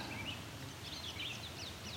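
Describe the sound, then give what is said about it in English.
A gray catbird's rambling song, a string of varied squeaky, warbling phrases running continuously over a low background rumble. “So catbirds are mimics, but they also have a crazy song that's just rambling on and then they throw in random other birds that they've heard, or I should say other sounds that they've heard.”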